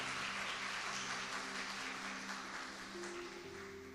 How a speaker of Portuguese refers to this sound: E nós fazemos isso com uma salva de palmas a ti, Jesus. Aplauda mais uma vez ao Senhor.